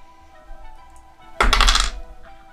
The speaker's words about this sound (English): If I don't drop the dice. Oh, that's actually some decent d4 rolls.